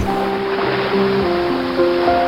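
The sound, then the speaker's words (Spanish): Rough ocean water churns and surges steadily against a ship's hull in a storm, a dense rushing wash with low sustained groaning tones underneath, swelling slightly twice as big waves break against the ship. “Un rocío helado barría la cubierta mientras grandes olas se rompían contra el barco.”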